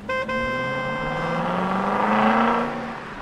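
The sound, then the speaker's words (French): A car engine hums steadily, then swells into a loud roar as cars drive past on a new road built along the gardens, and the sound begins to fade away. No one speaks. “Quelques semaines plus tard, tant de voitures l'empruntaient qu'elle les regardait passer Caramel, Gribouille et Mimine en eurent la tête qui tournait.”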